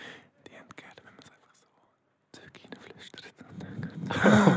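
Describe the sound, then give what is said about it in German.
Breathy whispering into a microphone, with crisp sibilant hisses and clicks, a brief pause in the middle, then a louder, rushing breathy burst at the end. “ich finde es so komisch, jetzt, wenn du ins Mikrofon reinflüsterst, das gibt so einen komischen Ton auf dem Kopf hören.”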